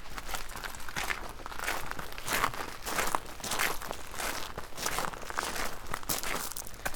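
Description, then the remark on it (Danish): Steady footsteps crunching and rustling through a herb garden, a continuous rhythm of steps with crinkling leaves, no talking. “skal vi øh, lige prøve at gå ja. derover.”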